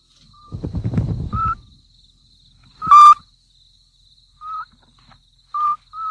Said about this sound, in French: Parfois aussi, on peut entendre, si on est très, très attentif, que la mère, petit duc, parle à ses bébés dans le nid. Voilà la mère.